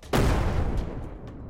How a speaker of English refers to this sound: There's a deafening explosion